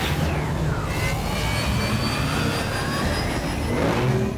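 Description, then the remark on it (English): A fighter spacecraft launches from a fighter bay into space with a loud, continuous, powerful jet-like roar, while high whining tones slide steadily downward through the rushing blast. “got into the nearest fighter, and launched it into space.”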